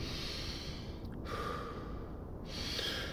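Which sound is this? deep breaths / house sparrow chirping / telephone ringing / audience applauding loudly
deep breaths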